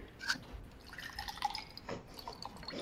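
Water being poured, a quiet trickle broken by bright plinking drips and small splashes, with no voices.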